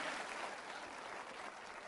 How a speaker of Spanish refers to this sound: Date un aplauso por eso, dítelo todos los días.